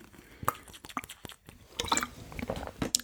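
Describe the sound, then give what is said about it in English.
Someone sips water: a few quiet, wet mouth clicks and small slurping gulps spread over a few seconds, with no talking. “Uh, I'll just take a sip of my water.”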